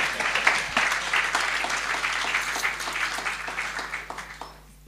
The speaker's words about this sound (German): So, danke für eure schauspielerische Brillanz und Hilfe. Gebt denen mal einen Applaus.